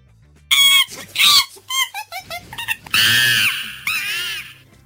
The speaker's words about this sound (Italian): E chi ah, abbiamo scimmia? una scimmia? Scimmia, scimmia.